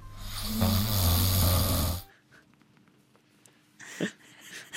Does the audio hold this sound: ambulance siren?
no